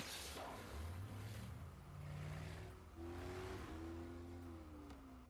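A stolen speedboat's engine revs up loudly twice in a Spider-Man game, its pitch climbing and then holding, over a steady rush of wind and water noise. No one speaks.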